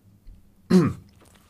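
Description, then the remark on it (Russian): A single short, gravelly throat clearing, fairly loud, lasting about a third of a second before fading into quiet room tone. “Рыбка застряла.”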